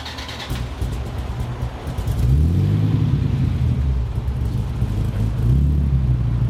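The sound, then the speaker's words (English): A V10 supercar engine fires up and settles into a loud, deep idle, its low rumble swelling with a couple of brief blips of revs. No one speaks. “That V10 has a unique tone all by itself.”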